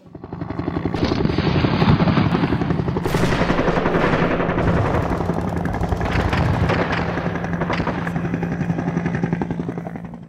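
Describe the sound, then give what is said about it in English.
A helicopter's rotors thump steadily and loudly throughout, flying from a base camp to Saigon during the Vietnam War, while bursts of automatic gunfire crackle over it, with sharp shots and rattling volleys filling the scene. “And we, we flew in a helicopter to Saigon.”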